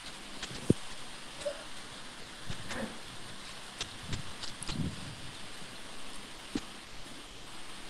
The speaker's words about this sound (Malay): lebat pula hujan.